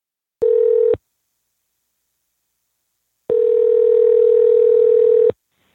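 A steady telephone tone hums in two bursts as a call is placed, a brief blip followed by a longer two-second tone, clear with silence between and no voices.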